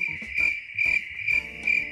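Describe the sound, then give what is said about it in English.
Crickets chirp in a steady, high-pitched trill, with louder pulses repeating about twice a second. Nobody speaks, and the chirping is clear against a quiet background. “that's what you'd hear when he's on stage. Crickets?”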